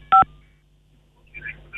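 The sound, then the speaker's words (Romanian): A single short phone keypad beep, a dual-tone press that sounds loud and clear, made by a caller's face touching the phone keys during a live radio call-in, followed by quiet and a faint crackly line noise toward the end. “aveți grijă când vorbiți să nu atingeți cu fața uh, tastele telefonului că se întrerupe”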